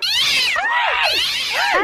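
A cat yowls loudly and continuously, its wailing meows rising and falling in pitch in a drawn-out caterwaul as it scratches someone, with no voices present.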